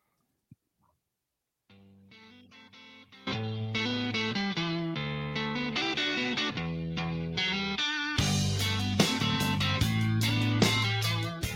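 A rock song builds from a sparse, quiet intro into loud distorted electric guitars with a heavy bass line, and pounding drums crash in for the final few seconds. No one is singing.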